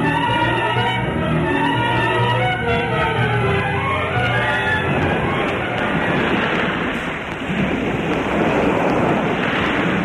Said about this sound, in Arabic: العاصفة قد قلبت البحر لججا عالية لا أستطيع أن أتبين بين السماء والماء شراعا أرى الريح قد عصفت بالأرض عصفا شديدا مدويا وزلزلت معاقلنا زلزلة لم نعهدها من قبل